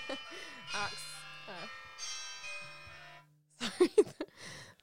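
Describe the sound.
A phone alarm sounds for about three seconds, a bright electronic melody with buzzy tones, under a man's brief speech, then stops as he laughs and speaks.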